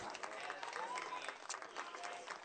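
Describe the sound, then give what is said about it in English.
A stadium crowd at a baseball game roars and yells steadily, a dense wash of many voices and some clapping that holds at a fairly even, moderate level throughout. “You can hear a lot of ye- yelling and stuff.”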